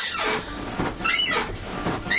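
A chair squeaks and creaks repeatedly, three drawn-out, high-pitched groans coming roughly once a second, fairly loud, with no one talking.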